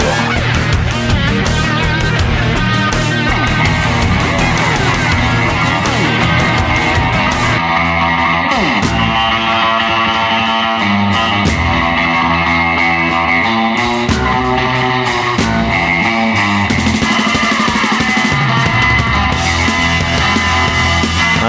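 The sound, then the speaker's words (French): Clean, bright, metallic surf guitar from a Stratocaster soaked in reverb, played through amplifiers with no distortion or saturation, plays loud and continuous with a full band, busy picked phrases ringing out throughout, with no talking. “Le son clair et métallique, une Stratocaster, noyé dans la réverbe, craché par des amplis qui ne souffrent d'aucune saturation.”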